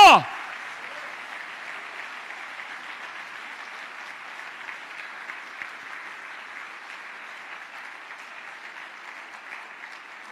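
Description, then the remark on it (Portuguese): An audience breaks into sustained applause, a dense, steady wash of many hands clapping at even loudness for about ten seconds after a brief sharp sound at the start. “Dá uma forte sobre palmas ao Senhor, porque Ele é Deus e Ele é conosco.”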